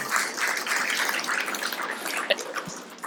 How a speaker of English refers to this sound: And you guys may notice this amazing class and group of students we have here this morning. If you would give them a round of applause